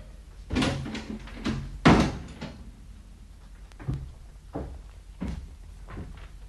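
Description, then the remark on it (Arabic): A door is pushed shut with a solid thud, surrounded by a scatter of smaller knocks and latch clunks over several seconds, with no one speaking. “دعي العاشقين وحدهما واغلقي دونهما الباب”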